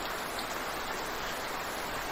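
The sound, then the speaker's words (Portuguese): Steady rain falls in a dense, even hiss of countless drops, continuous, with no voices or other sounds breaking through. “É chuva, Dudu, é chuva, é chuva, está chovendo.”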